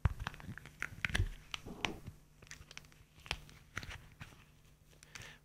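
A leather wallet being twisted in the hands, the way a neck is twisted, the trick used for the neck-twisting sound effect in the film The Exorcist: irregular creaks and dry crackles with several sharp snapping clicks, fairly quiet, spread over a few seconds without speech.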